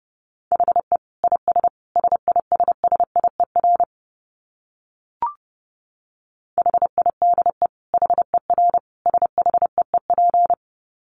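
Fast Morse code at 30 wpm: a single steady mid-pitched tone keyed in quick dots and dashes, two bursts of sending separated by a pause with a brief click, no voices.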